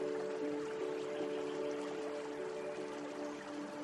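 Steady rain and flowing water make a continuous, even hiss that never lets up, with a soft sustained hum running underneath. No one speaks.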